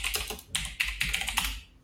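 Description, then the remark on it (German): Rapid clicking of keys on a computer keyboard as someone googles, a steady flurry of crisp taps in quick bursts with no voices. “Äh, also das, was ihr gerade gehört habt, war Robins äh, Tastatur.”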